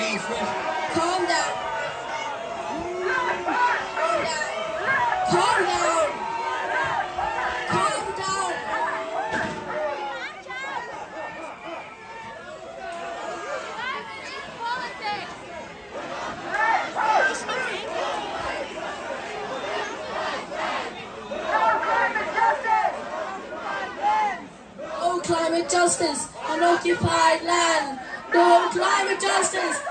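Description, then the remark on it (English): A crowd at a climate demonstration, many voices talking and calling over one another in a dense, continuous babble, with a few louder shouts rising above the steady hubbub. “I come here for a climate demonstration, not a political view.”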